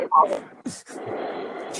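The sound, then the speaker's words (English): Close, airy breathing right at the microphone: a quick sharp intake followed by a longer, steady rush of breath, with faint murmured voice sounds mixed in. “we can hear you breathing.”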